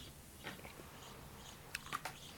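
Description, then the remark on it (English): Wet chewing of a juicy, fibrous pineapple, with a few sharp crunchy bites clustered near the end over a quiet background; no one speaks. “I'm chewing on, on pine. I'll tell you, pineapple will fill you up too.”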